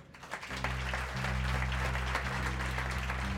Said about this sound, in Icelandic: sem er hér með mér í kvöld gefum honum gott klapp